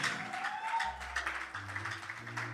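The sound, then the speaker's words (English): An audience claps their hands in praise, a dense, steady wash of applause over sustained low musical notes that shift in pitch. “Clap your hands and give Him praise. Don't clap like you're lazy or lousy.”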